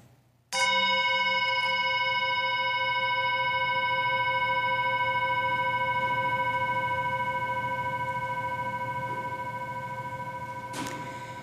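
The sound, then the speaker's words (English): A single chime is struck once and rings out with a bright, sustained metallic tone that slowly fades over about ten seconds, heard alone against a faint low hum. “As we listen to the chime, let us remember our connection to each other and the world around us.”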